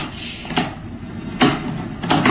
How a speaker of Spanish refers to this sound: asegura los cerrojos de la ventana y queda inmóvil, contemplando cómo la lluvia se estrella contra los cristales y descubre también...